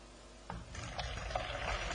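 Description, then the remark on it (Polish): Water used to warm a lidded tea cup is poured out in a steady, splashing stream, with a few louder gurgles and spatters as it lands in a small bowl. No one speaks. “po czym wylewamy wodę.”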